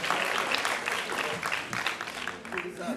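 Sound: audience clapping hands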